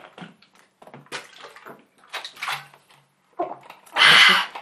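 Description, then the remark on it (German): Wet gulping and sloshing as someone drinks water in several quick swallows, followed by a loud, breathy rush of air at the end. “Ähm, ich muss das trinken. Dauert zwar einen Schluck.”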